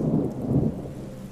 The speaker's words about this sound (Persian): بارونم یه ضرب داشت می اومد و هوا سرد